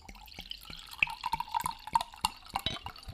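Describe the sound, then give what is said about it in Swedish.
Someone takes a big swig of a drink: a quick run of wet, clicking gulps and liquid sloshes, roughly a dozen sharp little pulses in a few seconds, fairly quiet and with no talking. “Big swig, big swig.”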